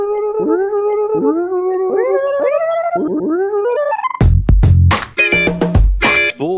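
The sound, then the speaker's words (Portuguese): A voice imitates a tape fast-forwarding to mark a jump ahead in time: a quick series of squeaky, rising pitched glides, then a burst of louder, garbled chattering sounds, fairly loud with no other talk. “ele vai dar um salto no tempo agora, vai rolar um, um fast vai forward”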